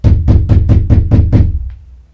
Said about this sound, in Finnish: kun sakastin ovelta yhtäkkiä kuului määrätietoinen kolkutus.